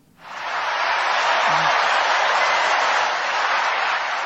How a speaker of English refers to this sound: I mean, I hear people cheering. Is that all you hear? Yeah, that's all I hear.